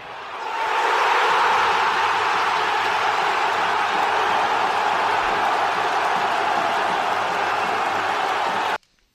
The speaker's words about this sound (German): So, wir haben den richtigen ordentlichen Jubel. Feuerwerk.